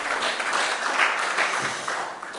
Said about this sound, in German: Einen riesigen Applaus für die beiden Freiwilligen hier. Genau.